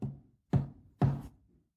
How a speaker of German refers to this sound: Er wartet heute Morgen trotz des Sonntags vor unserer Bürotür und klopft leise an.